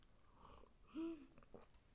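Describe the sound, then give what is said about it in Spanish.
A single short slurping sip of hot tea with a faint airy whistle, surrounded by soft mouth and swallowing noises, otherwise quiet. “No sé si escuchan como mis sorbitos de té.”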